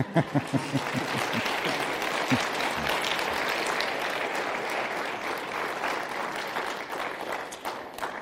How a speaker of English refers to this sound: And why don't you do something spiritual and clap for them?